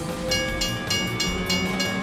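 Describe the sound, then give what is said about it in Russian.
A half-empty suburban electric train rolls steadily along the rails past small halts and level crossings, with a continuous low rumble, a faint electric whine, and a rapid, regular rhythmic clatter repeating every fraction of a second. “Поезд проносился мимо полустанков и переездов, провожавших вагоны с немногочисленными пассажирами веселой трелью звонков.”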